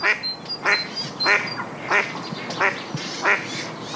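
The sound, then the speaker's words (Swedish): A duck quacks repeatedly in a steady series of about six loud, nasal calls, with a few faint high chirps from other birds early on and no talking. “Väldigt klassiskt kvackande, va?”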